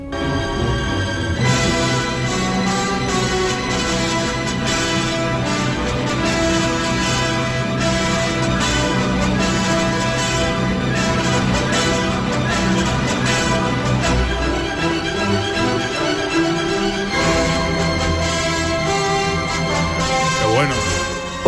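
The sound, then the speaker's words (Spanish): Loud, brilliant orchestral music, the fast allegro con fuoco final movement of a symphony, full strings and winds playing dense energetic passages with strong accents, sustained throughout with a brief dip before surging again. “Bueno, y, por supuesto la sinfonía termina eh, con, este movimiento brillante, alegro, con fuego, que suena así, de potente.”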